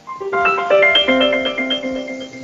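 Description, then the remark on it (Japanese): A wake-up alarm melody plays on a smart home device, not yet stopped with its physical button: a bright, steady electronic chime with sustained tonal notes and a light rhythmic tick beneath, fairly loud and without any talking. “これ今、目覚まし止めてないんで、うんうん、えっと、物理ボタンがあって、それを押すとね、あの、目覚まし時計と同じで、目覚まし起きたよっていう意味になるので、あの、起きるまで、でも起こしてくれるみたいですけどね。”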